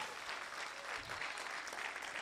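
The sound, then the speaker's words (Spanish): The New Season church audience applauds for the Lord, a steady wash of many hands clapping at once, dense and sustained with no pauses, and no voices standing out above it. “Siéntase libre de darle un aplauso al Señor.”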